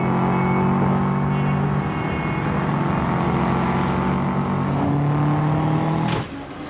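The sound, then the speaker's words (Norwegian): A car engine drones loudly and steadily in the film Racer and the Jailbird, its low hum shifting pitch a couple of times as it drives, then cutting off abruptly near the end with a brief burst of noise. “Eh, bilkjøring og litt raning.”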